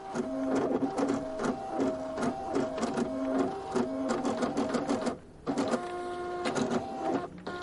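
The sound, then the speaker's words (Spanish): A fax machine prints out a sheet with a steady mechanical whir, a droning tonal hum and rapid rhythmic ticking. It pauses briefly, then resumes. No one speaks. “Un folio sale de un fax.”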